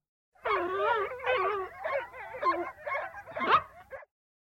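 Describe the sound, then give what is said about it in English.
A fairly loud string of high, wavering yelps and whiny squeals from baby foxes, tumbling over each other for about four seconds with no talking. “Six boxes for six baby foxes.”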